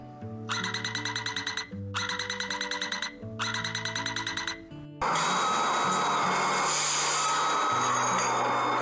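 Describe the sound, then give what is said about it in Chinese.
Three bursts of rapid, high electronic chiming tones, a metro (MRT) door warning, then a loud, steady roar of the metro train moving along the track. No one speaks. “这个就是恰润， 恰运， 恰润， 恰运， 没错，是捷运的声音。”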